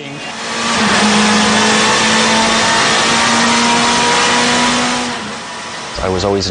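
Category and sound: vehicle, motorcycle engine revving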